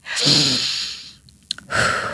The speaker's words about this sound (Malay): Kalau macam marah ke Stres dan sebagainya Saya akan duduk Dalam kereta pun tak apa Tarik nafas dalam-dalam